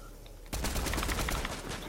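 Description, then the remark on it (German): Rapid automatic gunfire from a video game bursts in abruptly after a quiet moment, a dense, continuous rattle of shots that stays loud until the end. “jetzt hör mal auf rein zu sprayen.”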